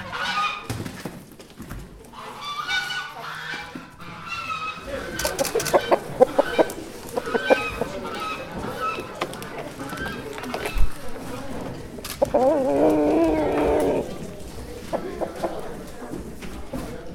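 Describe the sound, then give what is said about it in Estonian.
Chickens cluck and squawk in a busy barnyard chorus, with a rooster's louder calls rising now and then, with no talk over them. “Kikendi kökitorni, kus avapäeval kõndisid treppe mööda kitsed, kus valju häält tegid haned ja kuked”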